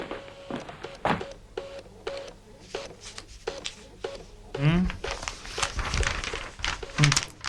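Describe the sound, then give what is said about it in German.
A printer runs steadily, its whirring feed motor broken by rhythmic clicks and short mechanical buzzes as the print head shuttles back and forth, with some louder clunks near the end. “Schmeiß doch mal den Drucker an”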